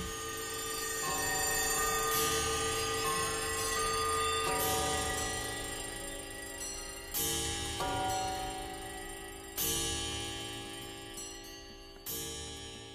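A clamor of many clocks ticking while alarm bells ring together, with loud metallic ringing bursts surging in roughly every two and a half seconds over a dense, continuous jangle; no voices. These are clock sound effects used on a band's album track.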